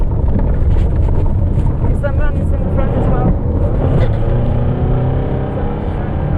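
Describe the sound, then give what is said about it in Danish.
A car engine roars steadily as the vehicle speeds off, its pitch climbing while it accelerates, with loud, agitated voices shouting at the driver to drive as fast as he can over the constant rumble. “Der bliver råbt til chaufføren, at han skal køre alt, hvad han kan.”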